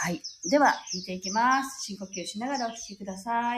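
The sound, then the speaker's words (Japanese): Faint, high bird chirps and tweets from birdsong recorded that morning play steadily in the background while a person speaks calmly over them. “で、今朝もね、鳥の声を取ったので、それもちょっと流しながらやっていきたいと思います。”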